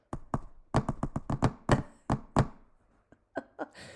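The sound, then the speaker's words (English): Morse code tapped out on a hard surface: about fifteen sharp knocks in uneven clusters with short pauses between groups, fairly loud and crisp, with no talking. “I'm practicing Morse signaling. Code. Watch here's here's Morse code podcast.”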